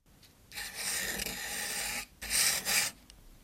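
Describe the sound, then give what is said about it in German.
A quill pen scratches across paper in two close, raspy strokes, a long steady scrape followed by a shorter, brighter burst after a brief pause. No voices. “So kratzt eine Schreibfeder übers Papier.”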